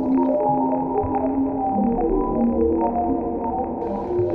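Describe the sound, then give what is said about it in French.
Music generated from a Hubble satellite photo of a galaxy cluster taken 13 August 2018, by an algorithm mapping each object to a musical frequency: layered, sustained electronic tones that drift and overlap in a steady, eerie drone, with soft pulsing accents and no voices. “c'est bien l'interprétation musicale d'une photo du satellite Hubble”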